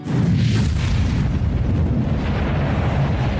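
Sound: rocket launch roar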